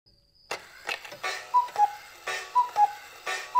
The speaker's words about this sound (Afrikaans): Die horlosie staan baie na aan Thomas se rak en die aanhoudende getik tok maak dat hy saans nie kan slaap nie om nie te praat van die klein voeltjie se geroep nie.